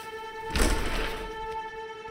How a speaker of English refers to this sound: I turned off the air conditioner and opened the windows so that I could listen to the thunder booming overhead, warning everyone get to cover.